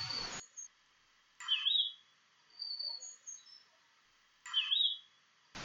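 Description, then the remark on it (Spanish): A small snow-white bird perched on a tree branch sings sweetly in high, bright phrases, two clear bursts of warbling separated by softer twittering notes, with no voices. “Pero aquí, que hacía mediodía, vieron un hermoso pajarillo blanco como la nieve, posado en la rama de un árbol y cantando tan dulcemente que se detuvieron a escucharlo.”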